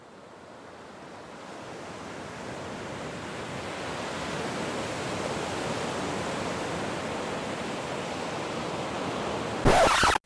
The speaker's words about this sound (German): Also mir reicht eigentlich nur Meeresrauschen.